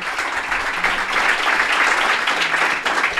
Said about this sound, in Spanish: Y nada, yo os pido otro aplauso, ¿vale? Para que se oiga ahí el ruido, para que, se oiga el ambiente.